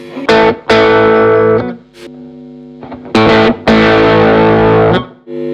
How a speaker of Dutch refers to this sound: Even die ja, dit is dan een soort clean boost eh, kant. Ja. En als ik de distortion helemaal openzet, of de drive, dan...